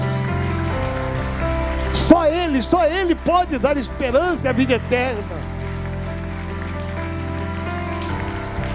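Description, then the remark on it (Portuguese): An audience applauds the Lord, Jesus, in a steady, dense patter that runs the whole length, while a single voice speaks emphatically over the clapping for a few seconds in the middle. “Vamos aplaudir ao Senhor, vamos aplaudir ao Senhor, vamos aplaudir.”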